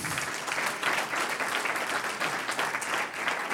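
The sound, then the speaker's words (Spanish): An audience gives a round of applause to the Lord, claps steadily, a dense, continuous wash of many hands applauding at an even level throughout, with no clear voices standing out above it. “Un aplauso al Señor.”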